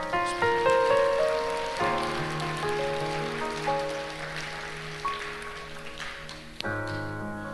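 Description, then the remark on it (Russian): Steady, dense clapping from a crowd keeps going for several seconds, with sustained musical chords playing underneath that shift a couple of times. “Дайте огромные аплодисменты.”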